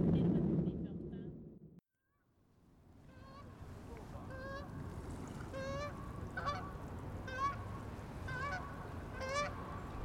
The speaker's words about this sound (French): pour le coup, c'est un, vrai. J'ai traversé tout le Canada pour entendre des vrais oiseaux.